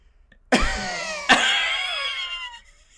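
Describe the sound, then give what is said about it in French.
A voice imitates a woman coughing like a smoker of three packs: two loud, harsh barks close together, each trailing into a raspy, wheezing rattle that fades over about a second. “Elle se, met à, elle se met à tousser, elle se met à tousser. comme un fumeur de trois paquets du par Elle se met à tousser comme si elle a travaillé toute sa vie à Tedford Mines.”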